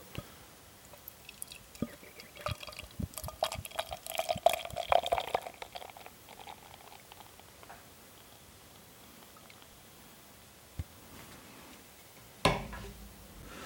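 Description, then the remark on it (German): Reddish beer from a freshly opened can pours into a glass with a gurgling, splashing stream, the pitch rising as it fills over several seconds, then fizzing quietly before a couple of light knocks near the end. “Ich habe mein Glas schon vorbereitet.”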